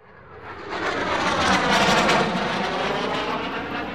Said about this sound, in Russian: Над ульем раздался звуковой удар, когда над нами промчался почетный эскорт, состоящий из громовых ястребов.